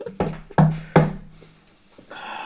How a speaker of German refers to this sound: Woll, wollen wir vielleicht, wollen so wir blöde, vielleicht mal klopfen? Ja, können wir machen. Wir gehen vor an die Tür und klopfen mal.